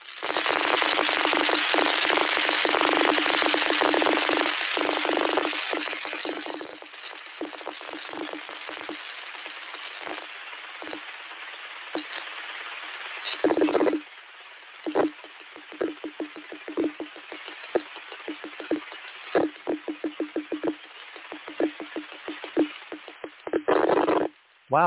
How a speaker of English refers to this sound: Weird pulse repeated. Okay, I was kind of looking at that myself. Okay, let's hope this works. This is what the raw data sounds like.